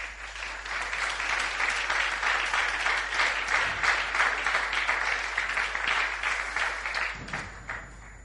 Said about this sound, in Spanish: ¿Cuántos dicen amén a eso? El Señor merece un aplauso por eso.